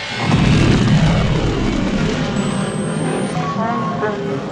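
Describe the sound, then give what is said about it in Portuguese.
A spaceship engine is started, vibrating around those aboard as the ship heads toward the sunlit sky of Tatooine: a heavy, booming rumble quickly swells into a loud, sustained roar, thick with low-end vibration and faint whining tones riding on top near the end. “Ela vibra ao redor de vocês quando vocês ligam o motor em direção aos luminosos raios solares do céu de Tatooine.”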